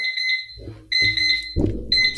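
A Time Timer alarm beeps in loud, shrill repeated bursts, about a second each with short gaps, while low background noise and a brief bump sound underneath.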